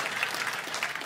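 A crowd claps steadily, a dense, even patter of many hands filling the room at moderate volume, with no voices standing out.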